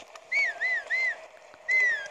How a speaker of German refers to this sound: Ja, pfeift noch lauter, das ist auch ganz verruter.